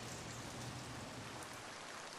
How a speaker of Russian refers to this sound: А однажды во время очередной прогулки Рики с друзьями внезапно пошел дождь. Да не просто дождь, а настоящий ливень.